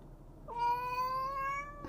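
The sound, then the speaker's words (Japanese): A cat lets out one long, drawn-out meow at a fairly steady pitch while the cats Mukku and Namutaro scuffle, clear over a quiet background, with no one talking. “ムックとナム太郎が後ろでバタバタ喧嘩してました。”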